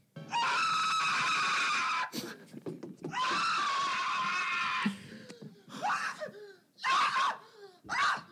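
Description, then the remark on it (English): A person imitates an anguished scream: two long, loud, strained shrieks of about two seconds each, then several shorter wailing bursts, with breathy laughter-like sounds between them. “If I was getting raped by the goat man, I'd be screaming.”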